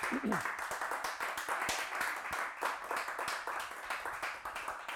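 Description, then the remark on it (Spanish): A crowd breaks into loud, sustained applause for Jesus, dense overlapping claps filling the whole stretch with steady energy, with scattered voices and cheers mixed in. “Vamos, si tú lo crees, dar un aplauso fuerte a Jesús.”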